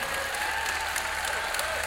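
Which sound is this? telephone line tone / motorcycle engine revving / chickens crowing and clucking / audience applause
audience applause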